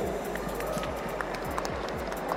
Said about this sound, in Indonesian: Nah, tepuk tangan dulu ya.